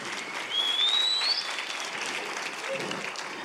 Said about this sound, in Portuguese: Dê para Jesus e para vocês uma forte salva de palmas.